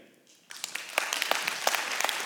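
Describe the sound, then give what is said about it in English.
An audience, asked to applaud if they think banning participation trophies is a good idea, breaks into a round of applause after a brief quiet moment, a dense, steady patter of many hands clapping at moderate loudness for about two seconds. “Uh, I want everyone uh, to do round of applause.”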